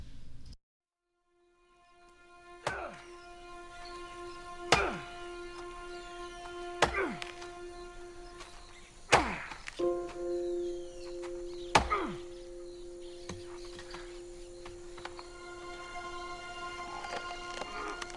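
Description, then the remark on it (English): An axe chops wood in the jungle as a man chops down trees: five heavy, thunking strikes spaced about two seconds apart, each ringing out briefly over a steady sustained tonal drone, with no voices. “And Locke wakes up the next morning and hears someone chopping wood.”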